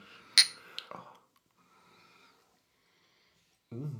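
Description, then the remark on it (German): A bright, ringing clink of drinking glasses meeting in a toast, followed by a softer knock and quiet shuffling, then a voice begins speaking. “Stößchen.”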